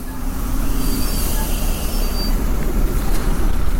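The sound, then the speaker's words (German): A white city bus, route 490, pulls in on time with a steady, loud engine rumble while thin, high-pitched brake squeals whine over it throughout. No one speaks. “Pünktlich ist er, der weiße Linienbus.”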